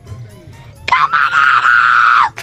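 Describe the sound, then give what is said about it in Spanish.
A waiter's single loud, high-pitched scream bursts out after a moment of quiet murmur, held steadily for about a second and a half before dropping off abruptly at the end. “El grito del final fue del camarero.”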